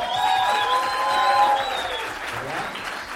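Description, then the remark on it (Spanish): Steady audience applause for one of the show's opening acts, a dense wash of many hands clapping at an even, fairly loud level for about three seconds, with a few whistles or cheers riding on top. “Un aplauso para Alexa.”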